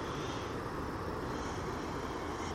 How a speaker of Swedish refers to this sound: Det som hörs är vatten som forsar